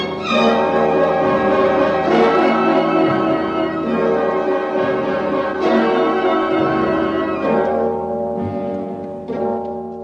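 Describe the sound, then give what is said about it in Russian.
Loud bells peal from a radio loudspeaker in repeated strikes over dense, sustained, hoarse music, a full rich clang that keeps ringing with fresh hits every second or two. No voices are heard. “И вслед за тем в радиорупоре грянули колокола и заиграла хриплая музыка.”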